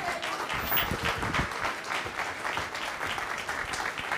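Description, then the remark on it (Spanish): A crowd applauds the King of Kings and Lord of Lords at a religious gathering, many hands clapping at once into a dense, crackling wash that holds an even loudness throughout, with no voices standing out. “Él es fuerte aplauso al Rey de Reyes y Señor de Señores.”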